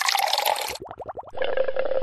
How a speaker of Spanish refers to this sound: ¿Pensaste en burbujas? Entonces pensaste en Tea, el Google tea más dulce, mm. más refrescante.